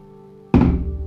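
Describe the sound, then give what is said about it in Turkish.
Cologne splashes onto cupped hands in one sudden burst, a wet slap that quickly softens into a brief fading rush over a steady low background hum. “Yani kolonyayı ele dökme sesi.”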